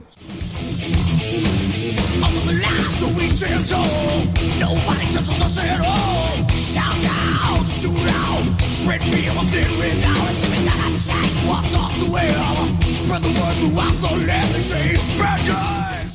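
A loud, dense heavy metal song with distorted guitars, pounding drums and harsh yelled vocals, playing at a steady, unrelenting level throughout.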